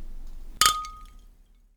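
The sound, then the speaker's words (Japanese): A single bright clink of glasses of Brasserie Knot Belgian IPA beer touching in a toast, crisp, with a clear ringing tone that lingers and fades over about a second. No speech. “それでは、乾杯。乾杯。”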